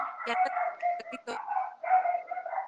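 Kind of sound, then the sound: animal, dogs barking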